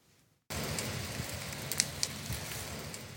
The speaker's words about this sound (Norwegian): Dette er lyden av skogbrannen i Sirdal i helgen.